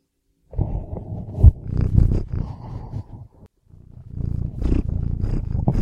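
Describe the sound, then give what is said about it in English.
A cat roars loudly, a deep rumbling roar lasting about three seconds, then a short pause before a second gravelly roar rises and continues to the end. “So aye, and here's my cat.”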